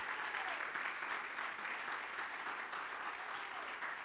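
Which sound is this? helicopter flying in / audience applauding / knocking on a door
audience applauding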